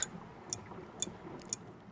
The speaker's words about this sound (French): Attablée au-dessus de ses devoirs, Inatea n'arrive pas à se concentrer et cette stupide pendule qui ne cesse de tic-taquer.